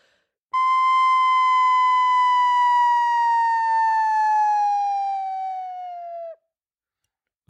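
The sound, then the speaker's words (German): A single sustained, breathy, whistle-like tone played on only the head joint of a flute glides slowly and steadily downward in pitch for about six seconds. It is played alone and fairly loud before stopping abruptly. “Dann würde ich jetzt nur mit dem Flötenkopf, das ist nämlich sehr einfach, Und das Ganze absteigend.”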